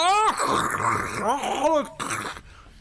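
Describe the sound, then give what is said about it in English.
A voice imitates an angry roar: a loud, raspy, growling bellow with rising and falling pitch swells, sustained for about two seconds before a short gritty burst and abrupt stop. “And he's going to roar, uh, which is actually going to start crackling over his speaker. Just roar.”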